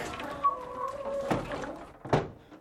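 Dull pecking knocks, two distinct taps about a second apart, with a faint thin chirp like a chick drifting underneath at the start.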